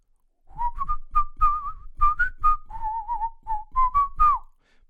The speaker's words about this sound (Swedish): Pausmusik.